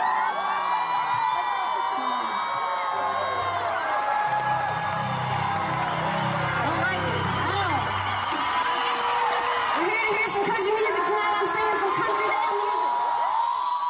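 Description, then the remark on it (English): A large concert crowd cheers and screams continuously, with high-pitched whoops and shouts layered over a dense roar that stays loud throughout, and brief low musical tones surfacing in the middle. “So in this clip, which like immediately was like in the moment of her doing it, people were cheering.”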